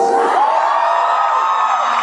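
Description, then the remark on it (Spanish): A crowd bursts into loud, sustained applause mixed with whoops and cheering, a dense steady roar of clapping and high voices that holds at full strength throughout. “Esta no será la única vez de ese fin de semana que escuche aplausos cuando alguien dice que tiene cinco, seis, diez, muchos hijos.”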